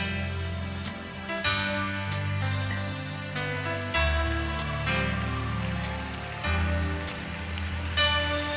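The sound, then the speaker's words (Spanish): An audience applauding: a steady, dense wash of clapping that holds throughout, over sustained music with regular, sharp beats recurring roughly every two-thirds of a second. “Con cada aplauso algo se está rompiendo con cada aplauso algo se está rompiendo, porque significa que has entendido que la voz de Dios viene sobre ti, has entendido que esto que te ha impedido viene y se quiebra en el nombre de Jesús.”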